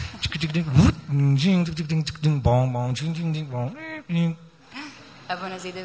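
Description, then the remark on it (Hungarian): A voice imitates the keys of a big old black typewriter clacking, with quick percussive clicks and voiced syllables in an uneven, rapid rhythm, fairly loud. “nem volt számítógép, és ilyen nagy fekete írógépeken csináltak, ilyen hangja volt.”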